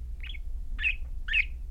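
Three short, high-pitched bird chirps in quick succession, each a bright tweet about half a second apart, over a low, steady background hum.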